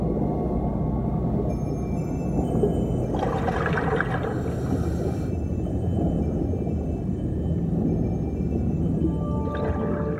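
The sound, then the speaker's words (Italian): A steady, muffled underwater ambience in clear sea water just after passing through a halocline, with a deep rumbling wash, faint sustained tonal calls drifting through, and a couple of brief bubbly hissing surges. No one speaks. “E poi, di colpo, lo superiamo e siamo nell'acqua limpida del mare.”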